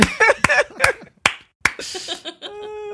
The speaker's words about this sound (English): These claps are increasing, man.